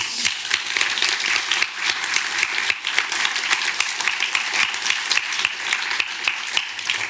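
Sustained audience applause for a speaker at the close of a Radboud Reflex and Green Office event, many hands clapping densely and steadily at a fairly loud level for several seconds without pause.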